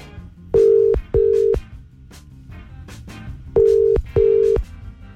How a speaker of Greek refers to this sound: Κανένα Γιώργο δεν σηκώνει σήμερα το τηλέφωνο